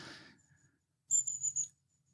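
A quick run of three or four thin, very high-pitched contact calls from a long-tailed tit, sharp and sibilant, fairly faint against a quiet background with no voices.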